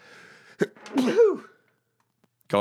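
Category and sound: human body sound, sneeze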